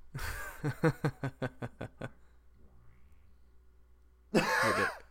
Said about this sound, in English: Is it gonna do it? it? Oh, that's the grossest fucking fart I've ever Uh, Hey Google, make a fart noise. This is a fart. What the fuck? Gross. That's terrible.